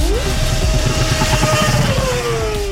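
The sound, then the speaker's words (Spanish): A small single-seater formula race car, built in Andalusia, Spain, by university students for a motorsport competition, revs loudly and steadily, its high whining pitch rising sharply then holding, over constant rumbling motor noise with no voices. “Participan equipos de varios países, pero también hay estudiantes andaluces que están compitiendo con los monoplazas que ellos mismos han creado aquí, en Andalucía.”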